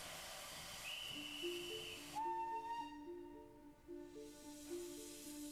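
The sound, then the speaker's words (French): A loud hiss of steam gives way to a sustained steam train whistle, a steady tone holding for several seconds as the train departs, with no voices. “Coup de sifflet. Le train part.”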